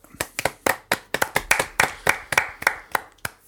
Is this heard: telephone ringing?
no